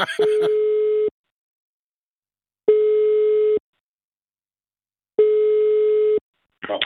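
A telephone ringback tone sounds while a speed-dialled call connects: three steady, mid-pitched tones, each about a second long, separated by silent pauses. A voice is briefly heard at the start and again at the end.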